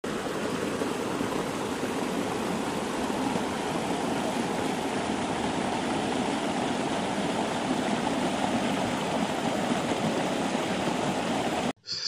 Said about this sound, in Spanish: La familia se quedó maravillada cuando llegaron al precioso lago que había en la parte de atrás de la casa y vieron la gran cantidad de agua que transportaba el río en esa época del año.